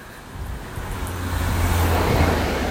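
A car passes by, its broad road rumble and tire hiss steadily building louder over a few seconds, with a deep engine drone underneath and no voices.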